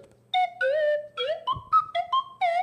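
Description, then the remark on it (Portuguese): A plastic whistle trills out a quick series of chirpy, warbling notes that jump between pitches, imitating birdsong, bright and fairly loud with no talking. “É que essa é de plástico, ela é perfeita. Então você imita passarinhos.”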